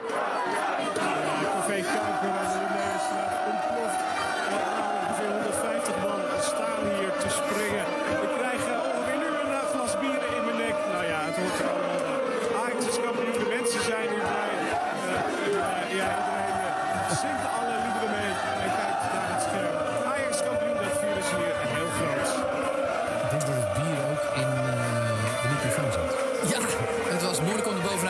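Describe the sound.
A large crowd of football fans cheers, chants and shouts continuously in the street, a dense, loud roar of many voices sustained throughout with rhythmic bursts of chanting.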